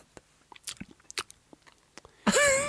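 Wet mouth smacking and chewing noises right against the microphone, recorded with the gain turned all the way up as an ASMR sleep trigger, a rapid irregular series of soft clicks and pops, ending with a short louder voiced sound.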